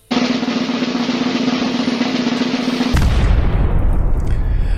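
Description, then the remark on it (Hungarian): A loud, continuous drumroll sound effect rumbles for about three seconds, then gives way to a burst of booming fireworks explosions crackling densely, with no voices. “Doppergés és hatalmas tűzijáték kíséretében van szerencsé bejelenteni”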